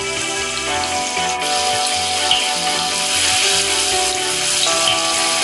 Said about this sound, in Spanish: Ahora en una sartén voy a freír el tofu porque me gusta que quede un poco crujiente.